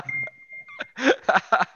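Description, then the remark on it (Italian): WhatsApp message notification beeps arrive on a phone in quick succession: a thin sustained tone, then several short, bright bursts tumbling one after another, moderately loud. “Stanno arrivando 300.000 messaggi.”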